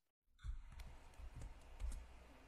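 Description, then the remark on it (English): Quiet typing on a computer keyboard while posting a comment: a handful of irregular key clicks and soft thumps over a couple of seconds, low in level, with no one talking. “Okay, I'm posting it, guys, in the comments.”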